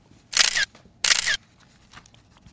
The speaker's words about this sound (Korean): 사진 찍는 소리예요. 네. 긴장하지 마세요. 사진 찍는 소리.